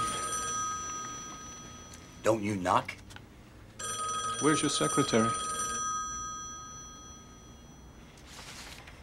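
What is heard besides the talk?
telephone bell ringing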